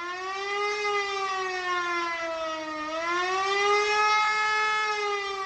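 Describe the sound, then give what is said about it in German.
A loud civil defense ABC alarm siren wails continuously, its pitch dipping and rising in a slow undulating sweep, with rich harmonic overtones and no voices. “Dieser Alarm bedeutet nichts Gutes. Wenn ihr ihn hört, solltet ihr ins Haus gehen und Türen und Fenster schließen.”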